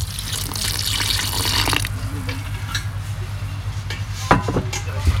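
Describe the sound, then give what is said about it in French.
A tap runs with a bright, steady hiss for about two seconds as water is added to feed a sourdough starter with water and flour, then shuts off, leaving a low hum and a few soft knocks and clinks. “Je rafraîchis le levain. Bah, je le nourris, je lui donne un peu d'eau, un peu de farine.”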